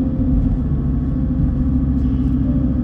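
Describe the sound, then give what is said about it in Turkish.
A car engine drones steadily and loudly at 2800 rpm, a strong low rumble holding a constant strained pitch as the car climbs a hill past red and orange rocks and pine trees. “2800 motor arabam yani dakikada 2800 devir yapıyor. Yokuşu çıkarken bas bas bağırıyor.”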